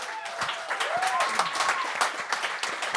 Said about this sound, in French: Ah, Félicitations, on peut l'applaudir pour ça. Vraiment.